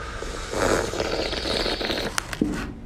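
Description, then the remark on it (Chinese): A long, airy slurp of tea drawn in over about a second and a half to aerate it in the mouth, hissy and steady, followed by a couple of sharp little clicks. No one speaks. “可以拓茶，可以吸溜着喝，让让茶在空气当中、口腔当中充分跟空气接触，就这样。”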